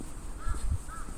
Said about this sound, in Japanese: カラスが鳴いてる